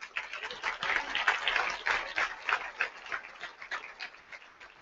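An audience applauds the Lord: dense, steady clapping from many hands that carries on for about five seconds, thinning slightly toward the end, with no one speaking over it.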